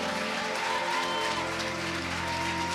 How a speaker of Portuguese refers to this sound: Mas sem o pessoal da fotografia, como é que a gente vai alcançar essas pessoas? Então aplaude eles também.